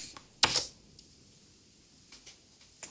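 A sharp mechanical clack of keys being pressed on a braille notetaker keyboard, space and U pressed to unlock the device, followed by a few faint, scattered clicks.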